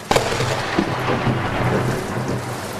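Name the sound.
thunderclap and rain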